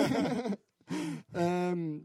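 A horse neighs in three loud bursts separated by short pauses, the last a longer, steady whinny, with no talking around it.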